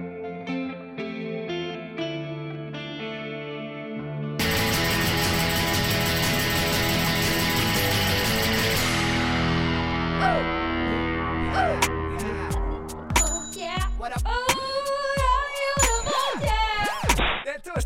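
A metal song played on the Nesten Helg show on Radio Revolt, opening with a few seconds of clean, ringing guitar chords before heavy distorted guitars and pounding drums crash in loudly, building into a dense, driving wall of sound with sharp clanging accents.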